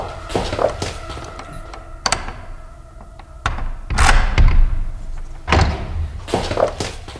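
door being opened

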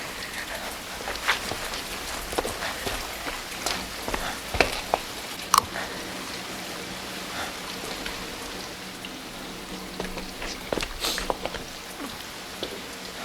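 rain

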